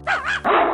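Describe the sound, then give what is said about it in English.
The speaker's pet dog gives two quick barks in a row, the second lower and rougher, loud and clear with no one talking over them. “That's my dog.”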